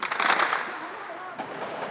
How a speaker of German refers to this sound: Überall Fahnen, geballte Fäuste, wutschäumende Demonstranten. Und mit einem Mal fallen Schüsse. Aus den umliegenden Häusern nehmen Scharfschützen der Christenmiliz Force Libanais den schiitischen Demonstrationszug unter Beschuss.